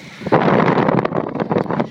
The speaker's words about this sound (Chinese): 碧绿色的海水，这是近海的地方，风特别大。这个不是杂音，是真正的风声、海浪声